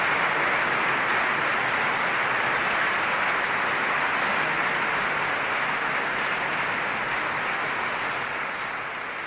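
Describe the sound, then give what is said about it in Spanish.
Loud, sustained applause from a large crowd at the end of a Holy Mass in which the bishop of San Sebastián was consecrated, a dense steady roar of clapping hands with no voices, lasting throughout and easing only slightly near the end. “En el último momento de la Santa Misa, al final, pues han tenido lugar estas palabras que ahora son acogidas con un fuerte aplauso.”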